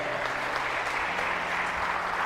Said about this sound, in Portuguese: Quem crê nisso, diga amém, dá um aplauso a Jesus. Fique de pé.